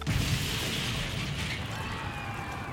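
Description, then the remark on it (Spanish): A bomb in a backpack, set off by pressing a button, explodes and derails a metro train, spreading fire; its roar fills the whole stretch, a dense, loud rumble with crackling debris that stays steady rather than fading, with no voices. “Presiono el botón con los ojos clavados en dirección a la mochila, con el deseo de no estar tan lejos para poder apreciar la explosión, pero al mismo tiempo de estar lo suficientemente lejos para no ser absorbido inmediatamente por ella.”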